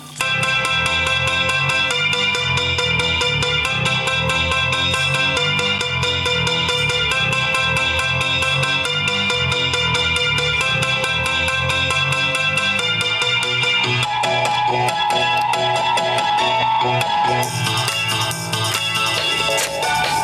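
A piano plays through a guitar amplifier with its tremolo effect on, its chords pulsing with a steady wavering throb at a full, constant level as part of a dense band mix, with no voices.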